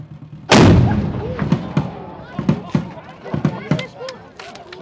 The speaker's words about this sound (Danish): det sidste skud er med en ladning på 800 gram.